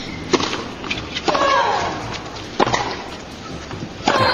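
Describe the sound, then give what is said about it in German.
Several sharp football kicks in a passing drill land about a second apart. Each is paired with a short, tennis-style grunting shout from players, over steady outdoor background noise. “Wir hören uns gleich mal an, wie das, die Passstabfette äh, mit dem Tennis, mit dem Tennisprinzip sich anhört.”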